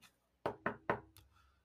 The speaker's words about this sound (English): do you knock on the door before the four of you enter, or is it oh. more of just a? Oh yes, we there's oh. a there's a knock.